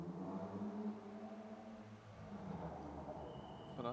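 A car drives by outside, its engine a steady low rumble with a droning hum that shifts in pitch as it moves, moderately loud with no voices over it.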